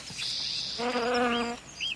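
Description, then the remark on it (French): A bee buzzes with a steady droning hum that swells louder for a moment in the middle as it wanders calmly along a grandmother's arm, with no voices present. “L'abeille se promène sur le bras de sa grand-mère, tranquillement.”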